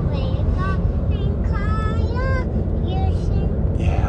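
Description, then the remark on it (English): Steady low rumble of road noise from inside a moving car, constant throughout, with a young girl's high-pitched warbling singing rising and falling over it as she is falling asleep. “And of course, car car driving is, is uh, stimulating falling asleep.”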